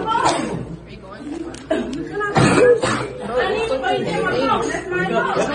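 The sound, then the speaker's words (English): Several students chatter over each other while sharp coughs break through, with a burst of loud coughing and cackling near the middle. “coughing and cackling.”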